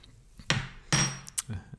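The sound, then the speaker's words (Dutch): A few sharp metallic clinks of a teaspoon against a coffee cup, about four taps spaced irregularly over a couple of seconds, with no talking. “Zo, even een lepeltje eruit. Hoezo moet ik een eh, lepeltje eruit halen? Omdat het zo tikt, bedoel je?”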